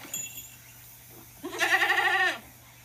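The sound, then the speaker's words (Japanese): A single bleat from Vinka, a goat kept by an acquaintance, fairly loud, lasting nearly a second with a wavering, pulsing quality, preceded by faint background noise and then quiet. “えっとまあ、ヤギの声って皆さんねご存知だと思うんですけれどもちょっと僕の知り合いのヤギの声を聞いてもらいましょう。”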